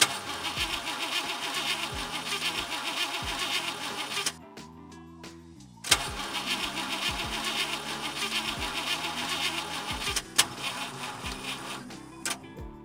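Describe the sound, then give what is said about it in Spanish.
A car engine cranks over and over without catching, loud, in two long grinding bursts separated by a brief pause, with a steady churning rhythm and no voices. “Pero, pero, si el coche no enciende, creo que, creo que no tiene gasolina.”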